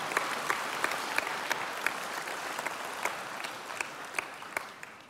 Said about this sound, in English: Can we just put our hands together for all of our teams in our counseling centres?